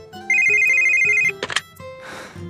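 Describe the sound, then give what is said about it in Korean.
A telephone rings loudly in one bright, warbling burst lasting about a second, a customer's call to a customer-service worker, followed by a few sharp clicks and a brief soft hiss, with faint tones in the background. “저는 고객들과 통화를 많이 합니다.”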